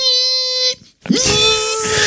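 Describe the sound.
A voice imitates a mosquito's whine by the ear with two sustained, buzzy, nasal tones. The first is steady and high, and after a brief pause the second rises quickly before holding, rougher and louder.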